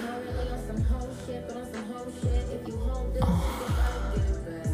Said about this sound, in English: Oh. my god, I'm so sorry if I'm breathing all on the microphone.